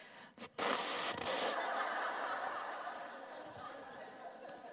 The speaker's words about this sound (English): just for the record, I'm blowing my nose, just so you know when you listen to the recording what's going on.